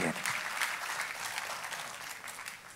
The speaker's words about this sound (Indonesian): Tepuk tangannya yang meriah buat Tuhan